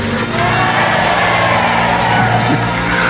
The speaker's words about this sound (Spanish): Todavía no hemos declarado nada y ya están aplaudiendo. Aplauda grite, empuje al valiente que está delante, súbase a la silla, abra las piernas, cierre los puños y escuche.